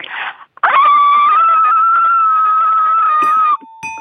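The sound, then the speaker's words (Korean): A person imitates a dog with one loud, drawn-out whining howl lasting a few seconds, after a short breathy burst and followed by a couple of brief clicks. “개 짖는 소리 웃겨서 백화점 상품권 10만 원권 드릴게요”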